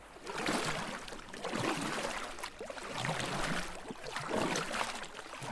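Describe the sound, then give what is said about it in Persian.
Water sloshing and splashing around a small rowboat with a single oar in the middle of the water, with rhythmic swells like paddle strokes every couple of seconds. The sound is steady, fairly loud, and has no voices. “ما وسط آبیم. توی یه قایق و فقط یک پارو کنارمونه به کدوم سمت حرکت کنیم”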